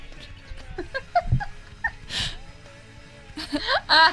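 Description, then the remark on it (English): A cat named Jet shuffling around on a desk, rubbing against everything, with soft brushing and a louder rustle midway, and faint bumps, mixed with brief wordless vocal sounds like quiet laughter. “He's on my desk rubbing against everything. You can probably hear him.”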